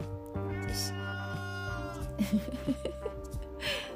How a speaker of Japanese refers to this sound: このまあ猫たちはね「お腹減った」とかね言わないとね分かんないから言ってくるから